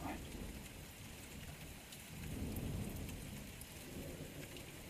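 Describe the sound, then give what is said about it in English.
Heavy, steady rain hisses with wind, heard from the edge of a stone overhang in darkness, and a low roll of thunder swells up in the middle before easing back into the downpour. No voices. “All you can hear out here is wind and rain.”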